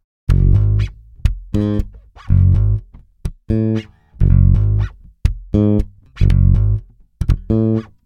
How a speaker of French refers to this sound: sur certains VST, c'est comme ça que ça s'appelle, on entend des bruits parasites, des petites choses rajoutées, des glissements de doigts